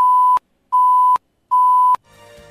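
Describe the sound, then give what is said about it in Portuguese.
Three loud, evenly spaced electronic beeps, each a steady high tone lasting under half a second, then a brief stretch of faint background noise: a timer alert warning a candidate that 10 seconds remain in a 10-minute block of a live radio interview. “Restando 10 segundos para o encerramento do bloco, a candidata vai ouvir esse alerta.”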